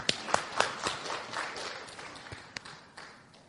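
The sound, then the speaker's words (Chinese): A small crowd applauds themselves for answering correctly that the points are acupoints: a dense patter of hand claps punctuated by a few sharper, louder claps, gradually thinning and fading over a few seconds. “恭喜你答对了，给自己鼓鼓掌，鼓鼓掌，来鼓鼓掌。”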